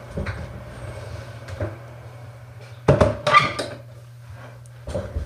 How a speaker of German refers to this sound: Und ich glaube, ich mache jetzt mal das Fenster zu. Dann ist zwar das schöne Vogelgezwitscher weg, aber dann verstehst du mich wahrscheinlich besser.